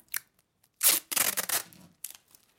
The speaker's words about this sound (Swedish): Nu kommer vi till den, kanske en av julens sämsta ljud, när man ska sitta och klösa upp en sån här tejprulle ja, varje gång.